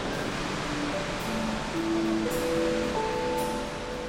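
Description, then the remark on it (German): A constant, dense roar of industrial cooling fans in a glass factory, blowing air in large volumes to cool the moulds and parts of the melting tank, with faint humming tones drifting in and out beneath the steady rushing air. No one speaks. “Das sind diese Ventilatoren, die in großen Mengen natürlich die Formen als auch Bereiche der Schmelzwanne kühlen.”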